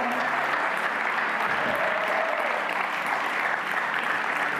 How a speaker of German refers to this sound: Kann man Kim Roland einen großen Applaus geben und der ganzen Family.